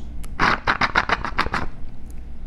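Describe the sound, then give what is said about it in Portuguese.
A gurgling, rattling slurp through the straw of a mate gourd in the afternoon: a quick run of about eight raspy bursts over roughly a second, fairly loud, then it trails off into quiet. “Roncou o nosso mate nessa tarde.”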